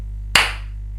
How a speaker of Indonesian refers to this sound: Nah, eh tepuk tangan dulu, tepuk tangan dulu. Ayo.